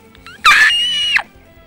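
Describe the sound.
A person imitates a metal band singer's piercing, high-pitched scream heard at a concert: one loud, sustained shriek lasting under a second, with only faint background noise around it.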